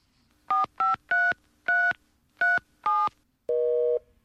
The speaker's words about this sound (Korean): 아, 혜란이 얘는 누구랑 통화 중인 거야? 네, 지들끼리 서로 전화해놓고 통화 중이라고 난리 난리.